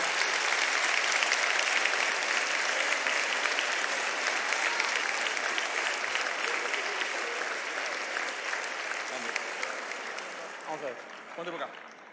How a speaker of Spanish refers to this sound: Por favor, un aplauso. Venga.